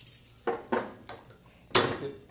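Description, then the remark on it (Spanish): A few sharp glassy clinks and knocks, ending in a louder bright snap as the cap pops off another beer bottle being opened, with faint rattling of bottles in between and no talking. “Saludos para el compa que reparte las cheves. El dealer caguamero. Yo sí me voy a destapar otra porque ya nada más.”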